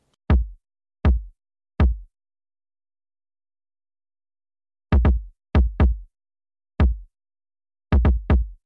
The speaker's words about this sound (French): Et c'est d'ailleurs ce kick, c'est, c'est, Junior, Junior à la prod, c'est lui qui, m'a envoyé ce kick-là, tu vois. il m'a envoyé ça, mais ça date, ça date, tu vois.